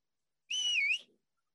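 A single loud, shrill whistle from a person at a chair in a crowded university food court during the lunch rush, held for about half a second with a slight dip and rise in pitch, then cut off sharply into silence.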